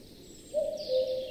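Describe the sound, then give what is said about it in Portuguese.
A common cuckoo gives one clear two-note call, the second note slightly lower, resounding in a forest over a soft, steady background hiss of forest ambience. No one speaks. “Onipresente nos relógios artesanais construídos na região, o cuco é, na verdade, uma ave bastante tímida, que canta muito raramente.”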